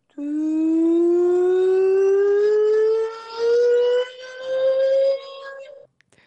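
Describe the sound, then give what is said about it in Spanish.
A loud, buzzy electronic tone from a mobile phone app, played through the phone speaker to push water out after it got wet in the shower, glides slowly upward in pitch for about five seconds before cutting off abruptly. “Bueno, pues hay una aplicación que te quita el agua del móvil en un momento.”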